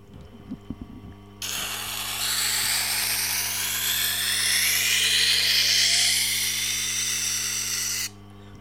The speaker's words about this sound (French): Et, c'est en enlevant une infime partie de matière que je vais euh, permettre au couteau, en l'occurrence, de pouvoir raviver vraiment son, son pouvoir de coupe.